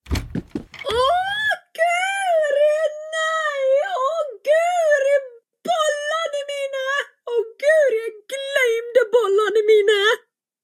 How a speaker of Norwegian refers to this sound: Huffagjengen bestemmer seg raskt for å rope på de voksne etter hjelp. Da kommer en skrikende Aud løpende inn på kjøkkenet.